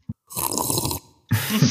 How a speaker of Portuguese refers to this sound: Eu até vou beber água, um bocadinho de água só por causa dessa. Por favor. Mas calma, é só para ouvirem, só para terem a certeza que estou a beber água, tipo.